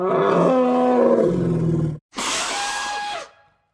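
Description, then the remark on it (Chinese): A huge elephant sneeze, caused by pepper stuffed into its nose: a long, loud, tonal wind-up that sags in pitch, a split-second pause, then a roaring, breathy blast that holds for about a second before cutting off. No one speaks. “大象突然打出了一个好大好大的喷嚏，把老鼠吱吱从他的身上震了下来。”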